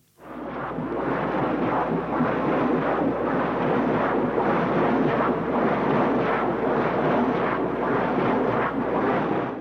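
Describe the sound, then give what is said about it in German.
A deep, continuous rumbling drone of a container ship heard underwater fills the whole recording, steady and loud with no pauses. No voices are present. “Und Containerschiffe, die hört man eben aus mehreren Kilometern Entfernung unter Wasser.”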